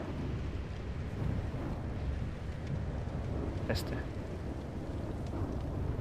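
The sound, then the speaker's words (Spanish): A steady, low whirring rumble from a spinning homemade contraption, recorded as a sound effect, runs throughout, loud and continuous, with one brief sharp click partway through and a voice speaking a single word. “El sonido de algo dando vueltas, que viene de esto que han hecho aquí.”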